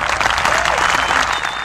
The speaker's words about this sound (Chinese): 掌声欢迎。